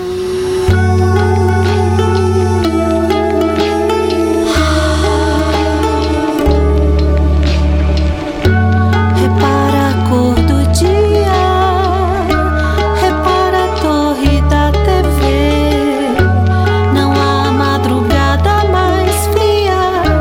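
A recorded song plays loudly and continuously, a full instrumental passage with a deep bass line stepping between notes under sustained melodic layers, with no voices heard.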